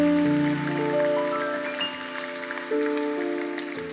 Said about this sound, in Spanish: ¿Por qué no le das un aplauso al Rey de Reyes y al Señor de Señores?